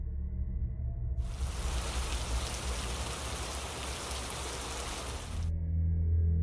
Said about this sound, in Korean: 형이 절대 잊어버리지 말라고 했었는데 그 순간 창밖을 보니 학교에 다시 돌아오던 길에 분명 날씨가 맑았었는데 다시 비가 오더라고요.